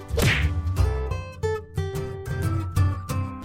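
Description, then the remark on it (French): A quick swishing slap cracks out near the start, short and sharp, as Bandeau sur l'œil slaps Bonnet Rouge, then gives way to steady tonal music that carries on to the end. “Il allonge une claque à Bonnet Rouge.”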